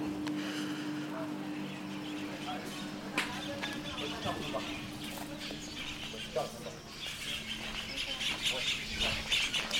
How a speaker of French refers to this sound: Dans toute l'enceinte hospitalière trônent des arbres centenaires. Des milliers d'oiseaux habitent ici et chantent donc au moment où tout le monde est sur les starting blocks.